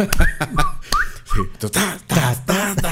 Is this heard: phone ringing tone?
no